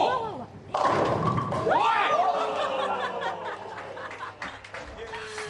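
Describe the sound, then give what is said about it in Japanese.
A bowling ball thrown by a left-handed professional bowler using a house ball, not his own, crashes into the pins with a sudden loud clatter, while excited voices exclaim and laugh over the rattling aftermath. “すごいなプロ見せんじゃんねえ黒ななんすかあのボールの回転あんな生まれて初めて見たあんな回転マイボールだともっといいの見せられるんですけどいやいや今厚めに入ってたんだよ、えー、本当はすごいですねあんな回転するんだプロが投げるとやっぱりプロですね”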